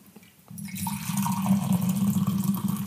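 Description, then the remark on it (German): Wine pours from a thermos flask in a steady, splashing stream that begins after a short quiet moment and keeps a hollow, gurgling fill tone throughout. No one speaks. “Das ist übrigens die Thermoskanne, aus der wir uns den Wein gönnen.”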